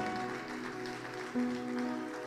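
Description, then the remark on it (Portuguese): An audience at a church service applauds the Lord steadily, a dense wash of clapping that lasts about two seconds, while a low sustained keyboard or organ note holds underneath and rises slightly partway through. “Ótimo, pode aplaudir o Senhor.”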